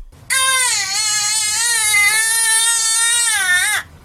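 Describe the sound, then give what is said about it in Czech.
A baby wails in one long, loud, unbroken cry lasting several seconds, clear with no other voices, the pitch wavering slightly before it cuts off abruptly. “A když se tam jako na těch místech totiž normálně jako směje, jsou tam lidi, je tam ruch, ti prostě ten dětský pláč, se tam jako ztratí, ne?”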